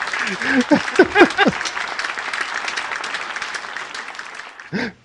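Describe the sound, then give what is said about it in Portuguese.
A burst of dense, steady applause from many hands fills the whole stretch, with a voice and laughter rising over it at the start and another short vocal sound near the end. “Você gosta de chamar de palmas, né?”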